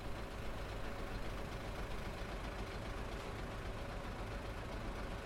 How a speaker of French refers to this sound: En fait, la seule chose qui compte pour …, ce sont les bus qui montent et qui descendent la rue. Tout en parlant, elle nous les montre. Le jaune, le blanc.